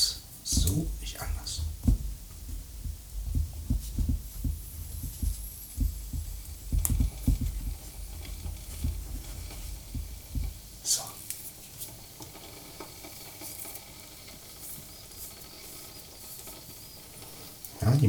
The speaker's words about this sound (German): Waschmaschine arbeitet schon.